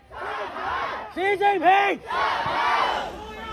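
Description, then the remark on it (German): A large crowd of protesters in China shouts a slogan in unison calling for Xi Jinping to step down, loud and rhythmic, with a few sharp chanted syllables standing out in the middle before the mass of voices swells again. “Die Menschen sagen hier Xi Jinping Step Down, also Xi Jinping tritt zurück.”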